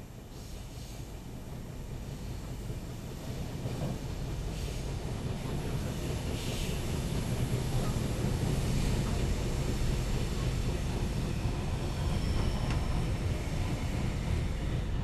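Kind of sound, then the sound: vehicle, train ride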